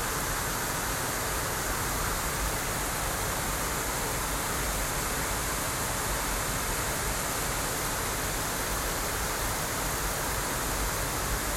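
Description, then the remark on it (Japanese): A waterfall at Naruko Gorge in Tohoku roars steadily in summer, a dense, unbroken rush of falling water with a broad hiss and low rumble, constant in level throughout, with no voices. “鳴子峡の滝”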